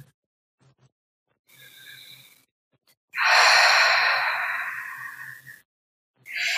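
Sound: deep breathing in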